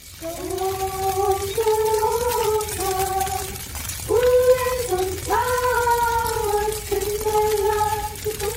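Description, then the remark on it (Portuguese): A magical glassy shattering of a shining sphere struck by a thrown spear, raining down like dust: layered, ringing tones that bend and slide in pitch, fading and swelling in waves with a fresh burst midway, steady and fairly loud with no voices. “A esfera brilhante se despedaça e chove como lágrimas de poeira no ar.”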